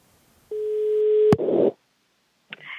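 A single steady telephone ringback tone of a call to an apartment in Malmö, Sweden, plays for about a second, then a sharp click and a burst of line noise cut it off as the call connects, followed by brief crackle.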